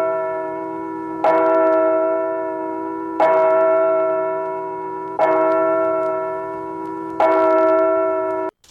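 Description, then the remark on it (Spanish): A church bell rings out four times at an even, unhurried pace, each loud clang followed by a long, shimmering hum that carries into the next strike. No voices are heard. “Las campanas van sonando con su alegre repicar.”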